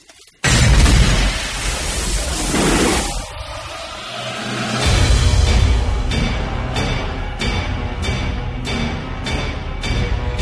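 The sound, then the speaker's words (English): Heavy metallic hammer hits ring out in a steady, evenly spaced series over a loud, dense orchestral film score, following a booming, explosive opening swell. “There's those hammer hits. This yeah. big metal bonk, bonk, bonk, bonk, bonk, bonk, bonk.”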